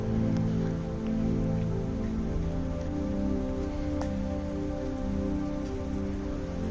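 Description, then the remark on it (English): Steady rain patters on a hard surface, a dense continuous wash of drops with a few sharper taps standing out, even in loudness throughout. “This is what has now come. Rain has now come.”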